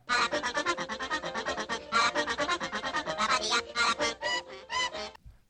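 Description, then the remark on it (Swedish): A human voice imitates the grating call of an annoying bird from a cartoon, a rapid string of raspy, quacking squawks that chatter on loudly for about five seconds before stopping abruptly. “Och så dyker det ju upp eh, den, den jobbiga fågeln som eh, låter så här.”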